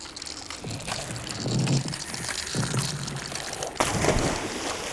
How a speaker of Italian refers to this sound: Ehi, ma il ghiaccio sta cadendo a pezzi! Purtroppo sì, Meteo Heroes. A causa del riscaldamento globale dovuto all'inquinamento, il Polo Nord si sta riducendo a vista d'occhio. I suoi ghiacci si sciolgono e presto potrebbero scomparire.